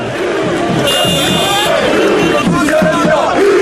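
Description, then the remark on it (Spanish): A loud crowd of protesters in the streets of Algiers, Algeria, shouting and chanting throughout, voices overlapping in a steady roar, with a shrill high-pitched tone cutting through for about a second early on. “Sonido, este que van a escuchar, de las calles en Argel.”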